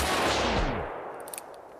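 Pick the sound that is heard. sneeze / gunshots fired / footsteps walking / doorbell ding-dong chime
gunshots fired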